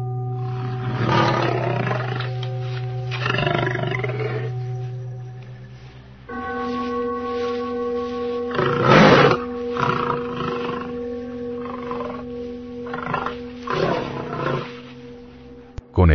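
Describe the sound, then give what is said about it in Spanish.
Several deep, rumbling roars of lions in a Roman circus come in repeated bursts, loud, over a steady low drone of sustained tones that shifts pitch partway through. “Y echaba a los cristianos a los circos romanos para que los leones los devoraran,”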